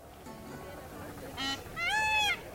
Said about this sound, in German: Auf dem Herkuleshof empfängt uns ein Pfau mit einem durchdringenden Schrei. Er thront auf einem aufgeschichteten Holzstoß, sodass seine grün schimmernden Federn besonders gut zur Geltung kommen.